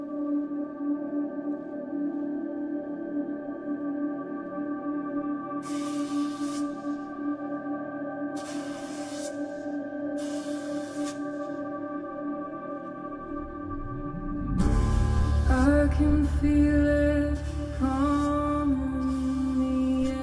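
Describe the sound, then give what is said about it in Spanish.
A recorded performance by The Mandarins drum corps of their 2021 program Beyond the Canvas, presented by Drum Corps International: sustained brass chords hold steady under three bright cymbal crashes, then the whole ensemble swells into a louder, fuller hit with deep drums near the end. “Performing their 2021 program, Beyond the Canvas. Drum Corps International is proud to present the Mandarin.”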